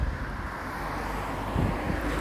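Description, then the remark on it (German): A steady, broad low rumble of morning vehicle traffic passing outside, continuous throughout with a slight swell near the end, no voices present. “ja, ihr Verkehr hier heute Morgen.”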